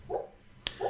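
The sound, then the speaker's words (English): A dog named Zeke whimpers and gives soft, muffled barks in its sleep while dreaming: two short, low woofs about a second apart, with a brief sharp click between them and no talking. “Wait, guys, that's a dog dream.”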